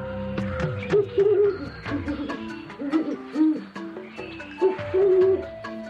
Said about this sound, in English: That's the sound of a great horned owl.